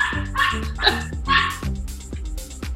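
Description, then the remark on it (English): A neighbour's dog barks repeatedly in a quick run of sharp, yappy barks, fairly loud and somewhat muffled, with a faint low hum underneath. “Um, oh, sorry, the neighbour's dog.”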